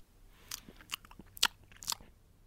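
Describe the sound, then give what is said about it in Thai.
Crisp crunching as someone bites into a single piece of food to taste it and chews, with four or five sharp bursts spaced about half a second apart over a quiet background. “แค่ลูกเดียวไม่เป็นไรหรอกมั้ง ขอลองชิมหน่อยนะ”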